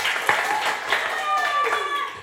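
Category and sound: crowd, applause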